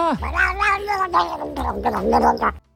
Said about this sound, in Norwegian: Dette blir en katt som sitter i et fang og blir kost med. Eh, og så tror jeg det bare er Det ble litt, litt for mye kos, og da begynner han å gi beskjed.